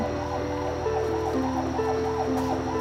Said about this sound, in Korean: 그런데 얼마 뒤 갑자기 막 사이렌 소리가 막 들리더니 오. 밖이 막 소란스러운 거예요.